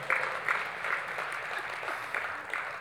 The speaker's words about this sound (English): Mostly women clapping, but.